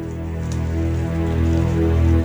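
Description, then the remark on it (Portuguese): Shower water runs steadily with a constant hiss of spray, moderately loud, over a low sustained tonal hum, and nobody speaks. “Aí escutou o barulho do chuveiro”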